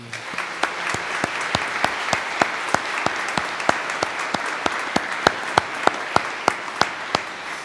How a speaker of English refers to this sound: A round of applause for our compromise.